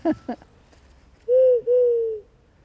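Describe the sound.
A person mimics an owl: two short hoots followed by two long, steady, sustained hoots, fairly loud, with quiet pauses between them.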